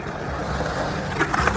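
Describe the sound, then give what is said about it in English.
A skateboard rolls with a steady, rushing swoosh through a bowl, with the wind from the skater, then scrapes into a couple of sharp, gritty grinding bursts near the end. No one speaks. “So you're hearing this swoosh through the bowl and the wind from the guy, and then the grind.”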